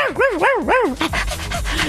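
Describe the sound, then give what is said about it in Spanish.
A small dog gives three quick, rising-and-falling whimpering whines in a row, then a rapid series of short, breathy yips and barks, fairly loud. “y de repente escuchas como dicen, y ahora, qué pasa el siguiente testigo, el perrito y llega un perrito así con la lengua de fuera.”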